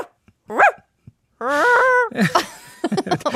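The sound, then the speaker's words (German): A person imitates a dog: a short yelp, a drawn-out wavering whine, then a quick run of choppy, strained barks, loud and alone with no other talking. “warte mal, ich, ich, will, ich will einen guten Hund machen.”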